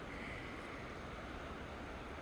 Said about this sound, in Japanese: 川に来ました